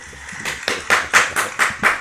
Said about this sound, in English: Round of applause.